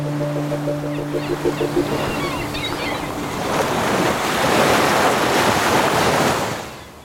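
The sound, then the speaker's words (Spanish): Sea waves wash against the shore, a broad hissing surge that swells in the middle and slowly recedes, with a low steady hum and wind noise early on. “El mar acaricia nuestra costa y los montes son verdes.”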